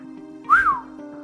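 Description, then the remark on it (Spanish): A man gives a single short whistle of surprise, sliding up and then back down in pitch, clear over a low, steady background hum. “soltó un silbido.”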